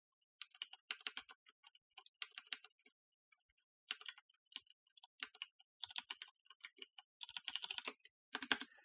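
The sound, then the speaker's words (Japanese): Rapid clicking of keys on a computer keyboard as a Japanese phrase is entered into the DeepL translator, typed in several short bursts with brief pauses between them, moderately quiet, with no voices. “ちょっとディープレイに聞いてみますね。ディープウェルで、全裸全点。入力してみましょう。”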